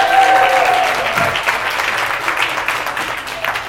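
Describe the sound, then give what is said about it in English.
An audience breaks into steady, dense applause after a group laughing exercise, many hands clapping together at a fairly loud, even level for a few seconds, with a faint whistle or cheer near the start. “Round of applause, you guys.”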